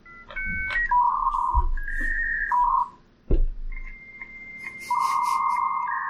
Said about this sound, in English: Dial up noise. um. Let's see. Uh, that sounds like a good one. Yeah. Mm. The dial tone and everything.